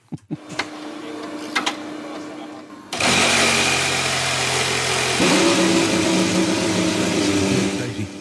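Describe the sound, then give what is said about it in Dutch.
The engine of a new Mercedes Formula 1 car fires up after a few seconds of quieter mechanical whirring, bursting into a loud, steady, high-pitched roar that holds strong to the end. “En dan wordt die motor van de nieuwe Formule 1 auto gestart.”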